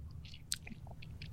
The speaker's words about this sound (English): I'm gonna take a sip of scotch and retry with this sentence